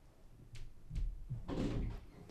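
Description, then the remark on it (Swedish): A front door is opened by a little sister after someone knocks: a couple of quick latch clicks, then a fuller rush and thud as it swings, over a low indoor rumble. Nobody speaks. “Okej, okay, min lilla syster öppnar.”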